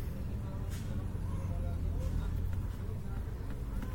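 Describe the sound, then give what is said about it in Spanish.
Heavy trucks rumble past on a street, a deep, continuous engine drone filling the whole stretch at a steady loudness, with faint indistinct voices underneath. “Que pasen los pendejos camiones, mira la verga.”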